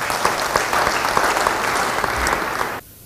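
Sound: audience applauding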